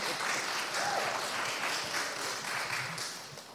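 Steady audience applause fills the whole stretch, a dense crackle of many hands clapping at a fairly even loudness, easing off slightly at the very end.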